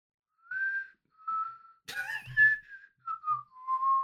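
Someone whistles a slow, simple melody of sustained notes, clear, with a brief breathy rustle midway through the tune.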